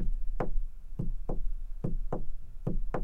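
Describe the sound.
Solid knocks land in steady two-beat pairs, mimicking the lub-dub rhythm of a regular heartbeat. About four pairs repeat evenly with no voices, only a low background hum.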